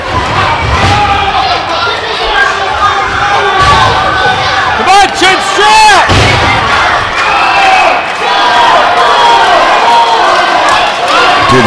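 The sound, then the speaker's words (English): A wrestling arena crowd cheers wildly during a match featuring Rhino, Kyle and Shogun in a loud, continuous roar, with shouts and rising whoops breaking through the din midway, the noise staying at full intensity throughout. “crowd is going crazy right now.”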